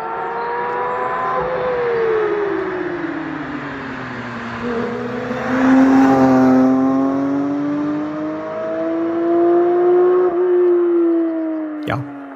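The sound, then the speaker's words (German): A Porsche GT3 race car roars past in a flyby recorded from outside, with a loud, rising and falling engine note, harmonics sweeping as it revs and shifts, closing with a sharp click near the end. “So klingt ein GT3.”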